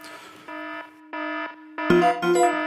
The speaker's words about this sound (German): Oh, was höre ich? Ein Alarm.